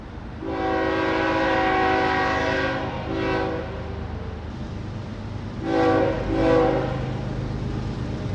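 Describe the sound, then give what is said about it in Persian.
A train with its headlights on comes round a bend in the track between pine trees, rumbling as its horn blares in a long sustained blast, then sounds again in two shorter bursts over the steady roar of passing cars and the screech of iron. “چراغ جلوهای روشن، صدای قیش قیش آهن، بوی تند دود، صدای فریاد و دوباره صدای بو.”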